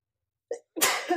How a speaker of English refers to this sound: I think I'm gonna sneeze.